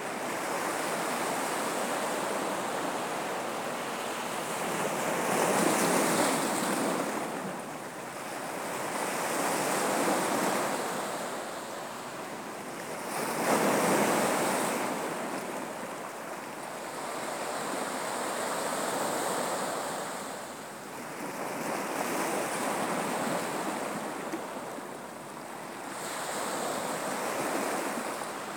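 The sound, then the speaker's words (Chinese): Ocean waves wash steadily onto a shore, broad hissing surges swelling and easing roughly every seven or eight seconds. No voices, just the continuous roar of surf rising and falling. “海邊冥想”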